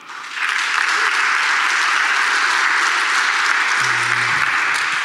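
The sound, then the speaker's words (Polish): Sustained applause from an audience thanking the organizers after a presentation, a dense, steady wash of many hands clapping that rises quickly in the first half second and holds at an even, loud level throughout. “ale też myślę, że bardzo fajnie byłoby podziękować organizatorom e, i skoro jestem ostatni, to jeszcze raz poprosimy o brawa.”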